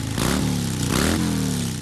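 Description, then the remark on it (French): A motorcycle service worker restarts an enthusiast's motorcycle; the engine revs twice in quick bursts with rising pitch before settling into a loud, steady idle rumble. “Moi, je redémarre la machine d'un passionné.”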